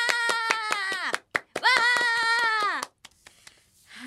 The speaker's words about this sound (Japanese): 劇団ズッキ娘さん第14回公演大変よく行きました上演決定です拍手わー